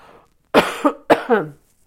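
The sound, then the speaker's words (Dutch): Two forceful throat-clearing coughs during a voice exercise, done to loosen mucus and irritation from the voice, each a sharp burst with a rough, raspy tail, with no talking. “Je moet wel een beetje van kuchen. Dat betekent meteen dat er slijm, irritatie bij mijn stem loskomt.”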